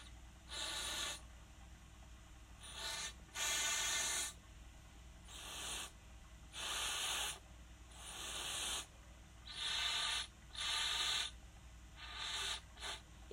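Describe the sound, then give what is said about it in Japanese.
Breathy, airy blowing into a homemade PVC-pipe shakuhachi while trying to make it sound, repeated in about a dozen short bursts of rushing air, with little clear pitch, fairly loud, with brief pauses between attempts. “塩ビ管尺八の音を鳴らしたく努力”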